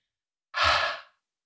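A single deep, breathy exhale, fairly soft, slowly letting air out after a full breath is held during a breathing exercise, rushing out for about half a second before fading away, with silence before and after and no talking.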